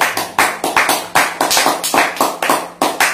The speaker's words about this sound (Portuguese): Uma salva de palmas.